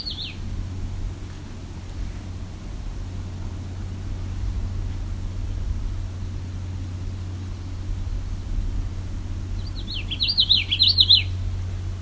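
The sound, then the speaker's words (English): A common yellowthroat at a lake, very close, sings a quick burst of high, rapid warbling notes toward the end, with a brief faint snatch at the start, over a steady low rumbling hum. “Okay, this common yellow throat's getting very close.”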